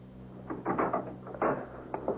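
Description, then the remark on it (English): A door being opened to a visitor, a police detective, with a handful of short, uneven clicks and clunks from the latch and handle, then a brief settling rattle. No one speaks. “And then there was someone at the door.”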